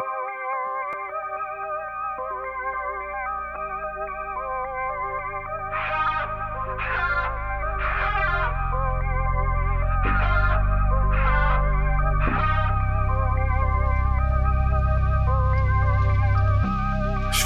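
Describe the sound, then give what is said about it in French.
A rap track's instrumental intro: layered, heavily processed synth chords over a deepening bass, punctuated by about half a dozen whooshing swept effects. It's loud and full, with no vocals yet. “Pas toujours facile de trouver une musique en rapport avec le sujet du jour.”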